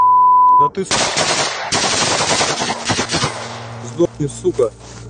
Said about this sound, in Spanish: Segundos después, recibe numerosos disparos con armas automáticas.